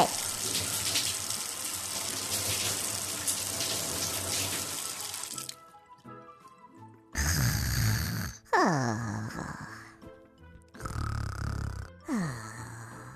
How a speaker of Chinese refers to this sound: 还有每次打开水龙头，就有冰冰凉凉的水水。